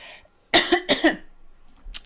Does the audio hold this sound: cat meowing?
no